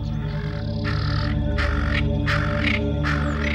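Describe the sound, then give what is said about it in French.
A monkey troop lets out loud, harsh alarm calls that echo through the whole valley, about five rasping bursts in quick succession, ringing out over a steady low background drone. “la troupe de singes se met à pousser de puissants cris d'alarme qui résonnent dans toute la vallée”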